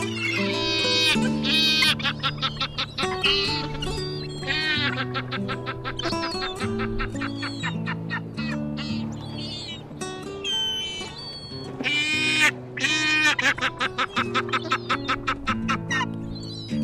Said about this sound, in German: Das war die Steppenmöwe.